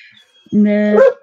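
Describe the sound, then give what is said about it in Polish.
A dog lets out one loud, drawn-out bark lasting about half a second, after a moment of near quiet; the dog is barking because another dog is passing in the building's stairwell. “Y, o, to jest właśnie mój pies.”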